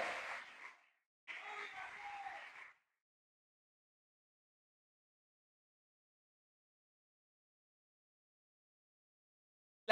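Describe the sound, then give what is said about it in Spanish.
Audience applause for God in two short bursts, a dense crackle of many hands clapping that breaks off briefly, resumes for about a second and a half, then gives way to silence. “Nosotros podemos dar un aplauso al Dios que creó la fe?”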